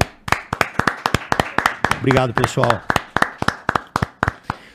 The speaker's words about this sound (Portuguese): Caralho, é palmas. uma salva de palmas.